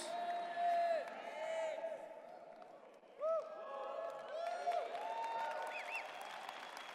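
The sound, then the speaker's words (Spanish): An audience claps steadily and loudly throughout, applauding the Lord, with scattered voices shouting and cheering over the dense applause, rising in bursts as it goes on. “Vamos, apláudele más al Señor. Apláudele más fuerte.”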